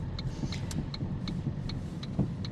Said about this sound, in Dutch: Dus ja, ik rijd nu naar de huisarts.